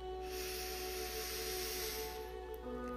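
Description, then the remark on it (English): A slow, deep breath drawn in during a guided breathing exercise, a soft airy rush that swells for about two seconds and then fades, over a steady low humming drone with no talking. “Inhale.”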